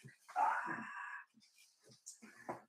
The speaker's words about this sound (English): Oh, oh, you're talking about my puppies, I think.